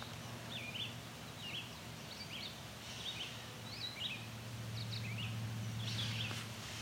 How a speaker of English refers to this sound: You can hear that catbird meowing. Let's head towards the catbird see what it has to say.